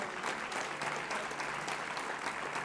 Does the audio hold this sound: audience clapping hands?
yes